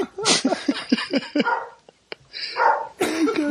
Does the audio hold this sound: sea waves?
no